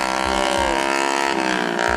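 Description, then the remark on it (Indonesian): A motorcycle passing by outside drones loudly, a steady buzzing rumble with a faint rhythmic pulse running through it for the whole stretch, with no voices. “motor suka kayak gitu kalau emang nggak ngebut gitu kan”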